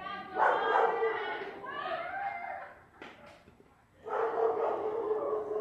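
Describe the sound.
Several dogs bark in repeated, overlapping bursts, fairly loud, with a brief lull before another strong volley, in a street where an argument is going on; women shouting in the background mix in with the barking.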